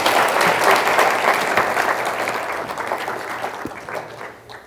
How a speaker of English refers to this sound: Give my family a hand clap. Thank you so much, guys. Love you.